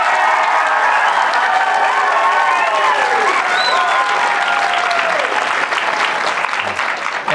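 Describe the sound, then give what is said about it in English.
A large audience applauds loudly and steadily for several seconds in a shout-out to Seth Davis, the dense clapping joined by scattered cheers and whoops, with no speech over it. “We got a kind audience. They gave a big time shout Very out kind.”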